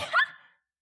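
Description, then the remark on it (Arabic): A single short, sharp sneeze bursts out, a quick breathy explosion that fades within half a second, with no talking around it. “ليك ما عطسة تعلموا أصول العطس”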